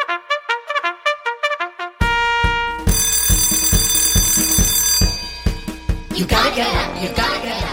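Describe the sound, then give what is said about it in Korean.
A quick run of about nine bright bell dings rings out alone on the Korean radio show FM Daehaengjin, signalling a listener snack giveaway, then gives way to loud, busy music with shimmering chime-like tones. “종종이 울렸네 보양식 저리 가라 영양만점 FM 등지표 간식 받아가세요”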